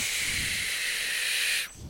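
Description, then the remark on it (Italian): A snake, Cibra, hisses long and steadily, fairly loud, holding evenly for nearly two seconds before cutting off abruptly. No one speaks. “Uh, e infine la mia tortora Siki e il mio serpente Cibra.”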